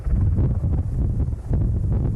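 Wind blows steadily outdoors during a wildfire, a constant low rumble buffeting the microphone with gusty surges throughout, with no voices present; the wind is blowing toward the people recording.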